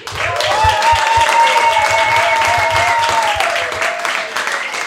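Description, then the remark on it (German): A crowd applauds loudly and steadily for about five seconds, dense clapping mixed with cheering voices and a sustained whoop, with low thumps underneath. “Und jetzt dürfen wir alle nochmal jubeln, denn wir begrüßen den Podcast vom Bildungszentrum hier auf der Bühne.”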